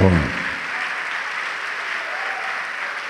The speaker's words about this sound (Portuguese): Então, traduzindo a palavra amém, que os serafins estão dizendo aqui, eles estão dizendo: Senhor, Rei fiel, e vamos aplaudir o Senhor, Rei fiel.